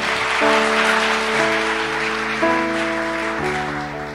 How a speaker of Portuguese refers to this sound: então dá uma salva de palmas sério aí, todo mundo junto.